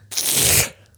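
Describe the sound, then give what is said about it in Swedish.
The door of a Honda car, left closed and unstarted for about four months, pulls free of its rubber seal with a short, sticky ripping and peeling sound lasting over half a second, fairly loud, then a faint low hum. “Dörren sitter fast så här i gummilisten för att den har varit stängd så länge.”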